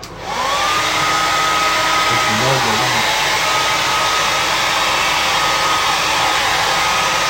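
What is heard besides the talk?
hair dryer blowing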